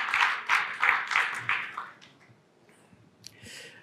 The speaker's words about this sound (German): Gerne einen warmen, lauten Applaus